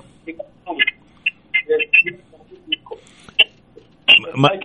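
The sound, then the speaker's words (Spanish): A voice comes through a phone line on speakerphone, thin and muffled with a boxy, band-limited tone, in short choppy bursts separated by brief gaps, moderately loud. “¿E, ¿Estás en el speaker del, del, del, del, teléfono?”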